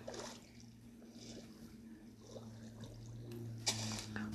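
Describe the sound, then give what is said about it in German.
Muffled underwater ambience in an ocean temple in a video game, with a steady low drone, soft watery swishes and bubbling, and a brief brighter rush of water near the end. No voices, just the continuous enclosed hum. “bin ich gerade noch im Ozean. Tempel.”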